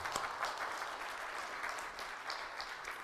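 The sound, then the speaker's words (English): A crowd of people claps steadily for a few seconds, a dense, even patter of hands with no voices standing out above it, in response to the line 'the Word became flesh and made his dwelling among us' during a sermon. “I'm, I'm saying applause is okay here. I'm going to say applause.”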